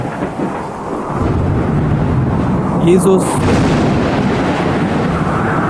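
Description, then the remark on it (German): A violent storm on a lake roars with deep, rumbling thunder and heavy rushing noise of waves that swells after a second and stays loud throughout, with a brief spoken word heard over it. “Plötzlich brach auf dem See ein heftiger Sturm los, sodass das Boot fast von den Wellen begraben wurde.”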